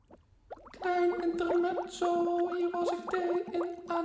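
Tea pours steadily into a cup, a continuous bubbling stream with a hollow, ringing tone that shifts slightly in pitch as the cup fills, briefly interrupted midway before flowing on.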